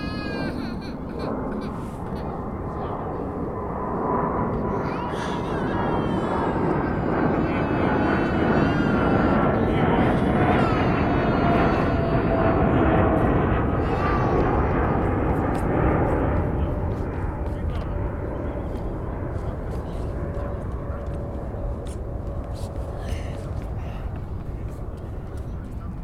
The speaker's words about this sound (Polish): To był samolot pasażerski. Ale jest skojarzenie, prawda?